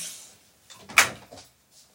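A door is opened: a soft rattle, then a sharp latch click and a brief scrape of movement, fairly quiet with no voices.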